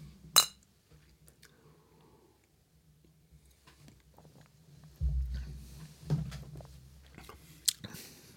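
A single sharp, bright clink of glasses touching in a toast with Bavarian dark beer from a brewery in Petting rings out at the start, then fades to near quiet before softer low rustling and sipping sounds follow.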